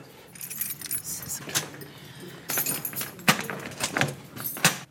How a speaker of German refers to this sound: Jetzt ist von drinnen ein Klacken zu hören. Das ist dieses System. Das ist das System, er schließt sich ein. Es kann keiner rein, nur wir als Personal.